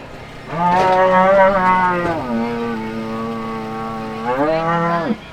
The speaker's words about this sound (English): I watch cowboys brand and vaccinate cattle and do the messy business of pregnancy checks.